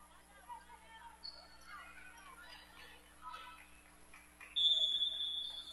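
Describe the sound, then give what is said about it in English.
A referee's whistle blows one loud, sustained, high-pitched blast near the end, following a stretch of murmuring crowd and indistinct voices before a Lady Cards volleyball serve, with the score tied at 17 in set four. “There's the whistle and the serve coming.”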